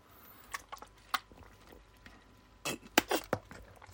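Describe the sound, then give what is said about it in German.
A person drinking a sip of water: a few soft mouth clicks, then a quick cluster of wet gulps and swallows near the end, with no talking over them. “Jetzt mache ich nochmal einen Schluck aus meinem Wasser, denn ich bin sehr durstig.”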